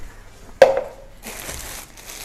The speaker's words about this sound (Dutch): Ik wil de gehakt even invriezen. Dus ik ga gehakt verdelen in plastic zakjes.